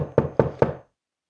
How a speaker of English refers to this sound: After a couple of minutes, Delbert stood up straight and started knocking on Michael's door in hopes that he was there.